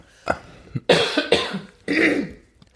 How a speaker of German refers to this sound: Ich muss mich jetzt mal räuspern, weil ich habe einen Frosch im Hals.